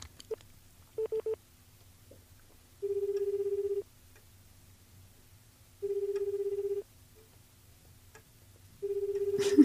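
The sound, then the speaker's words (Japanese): A few quick dialing beeps, then a phone line rings repeatedly: three steady, evenly spaced ringback tones that go unanswered, over a faint low hum. The call gets through to a phone that has signal, but no one picks up. “ただいま電話に出ることあまあでも電波は通じてるんでね。”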